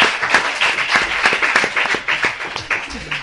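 A crowd applauds steadily, dense overlapping claps at a loud, even level for a few seconds, with faint voices mixed in underneath.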